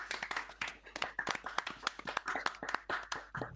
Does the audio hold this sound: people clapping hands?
yes